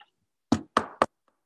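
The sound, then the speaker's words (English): Three quick knocks of knuckles on wood, evenly spaced, each a short hollow thud with a brief ring, followed by silence. “Knocking on wood.”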